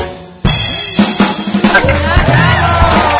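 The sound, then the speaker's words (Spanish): Applause starts suddenly and stays loud and dense to the end, a steady wash of clapping with voices mixed into the crowd noise. “Hasta ahí es suficiente para que podamos em, reconocértelo con este aplauso.”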